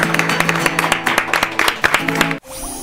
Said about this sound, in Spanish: ¡Vamos! Este fue el Pinky Sessions. ¡Un aplauso! Gracias.